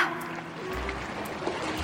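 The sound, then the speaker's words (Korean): Gentle water laps and sloshes in a steady, quiet wash, with soft irregular splashes and no voices. “이것은 자연의 소리 출렁출렁, 출렁출렁, 고요한 물소리.”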